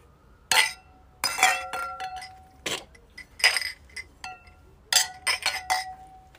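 Drinking glasses clink together in a toast, several bright ringing taps in quick succession, each leaving a short sustained glassy tone, clear with no talking.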